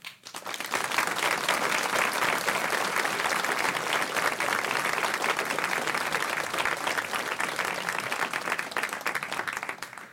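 Sustained audience applause for a panel after their discussion, a dense wash of many hands clapping steadily for about ten seconds, fading in at the start and easing off slightly at the end, with no voices.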